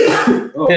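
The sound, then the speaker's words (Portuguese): A single loud sneeze: a voiced intake that breaks off into a sharp, hissy burst at the end. “Saúde!”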